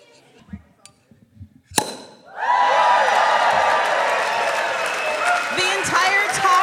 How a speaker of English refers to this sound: So, what, what we're doing is we're taking the back of the knife and we're sliding it up the bottle of champagne yep. and just, really and just whacking, whacking the, the crap out of it.